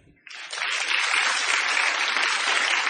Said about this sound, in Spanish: Un truco sensacional. La gente aplaudía nerviosa y presa del delirio.